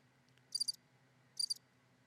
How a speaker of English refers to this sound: Hold on. I moved all my sounds, but I. Sh- oh, does this sound more like crickets?